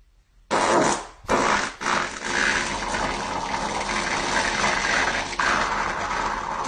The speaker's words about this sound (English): When she leaves, and you can just cut that dirty fart.